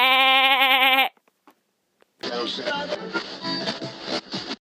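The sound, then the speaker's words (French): A single loud, quavering sheep bleat lasting about a second, followed by a brief pause and then a dense, busy stretch of overlapping sound that continues to the end. “un petit un petit b, allez bé”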